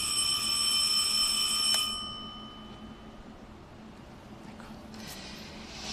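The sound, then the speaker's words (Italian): A doorbell, pressed to test whether it works, rings in one steady, sustained electric tone for about two seconds, then cuts off abruptly, leaving only a low room hum. The ring is fairly loud. “In effetti, funziona.”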